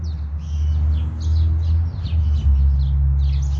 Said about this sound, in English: Sorry, I'm outside. That's the birds.